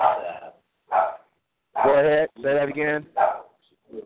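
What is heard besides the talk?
dog barking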